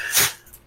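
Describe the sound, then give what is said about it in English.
A single short, breathy snort bursts out, a quick sharp puff of air like a small dog sneezing, then fades into quiet. “Bless the puppers.”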